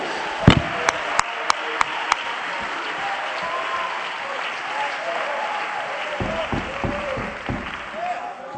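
An audience clapping hands unto the Lord in a dense, sustained wash of applause, with a few sharp, louder claps standing out early on and a steady crowd murmur underneath.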